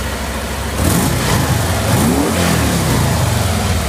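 car engine revving

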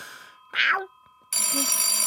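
telephone bell ringing

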